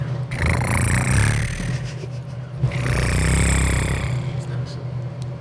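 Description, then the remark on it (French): A voice imitates an electric fan whirring: two sustained, breathy buzzing hums, each lasting over a second, with a brief pause between, fairly loud. “Fait qu'on va dire que c'est un ventilateur.”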